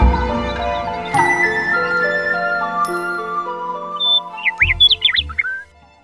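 Soft sustained music plays, then near the end a nightingale bursts into a short run of bright, quick whistled chirps and warbles, clear and crisp.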